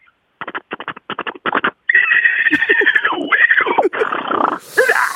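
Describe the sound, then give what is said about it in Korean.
A person imitates a zebra whinny: a quick string of choppy, stuttering bursts, then a long, loud, wavering bray that rises and falls before breaking off. “얼룩말 소리 한번 내보겠습니다.”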